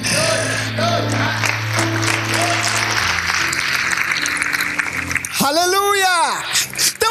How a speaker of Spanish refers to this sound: ofrenda de palmas al Señor Jesús.